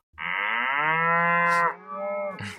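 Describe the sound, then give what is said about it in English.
A single long, loud cow moo, rich and harmonic, sustained for over a second and then trailing into a lower, softer continuation with a brief breathy noise at the end. “We got beef.”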